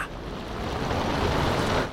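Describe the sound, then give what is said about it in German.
A roaring storm with crashing waves fills the scene, a steady, dense wash of wind and surf that swells slightly louder toward the end, with no voices present. “schreit die Krähe gegen das Gebrüll des Sturms an.”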